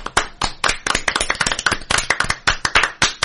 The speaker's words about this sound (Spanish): Un aplauso para que se oiga.